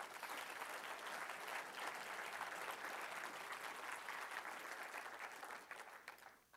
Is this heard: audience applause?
yes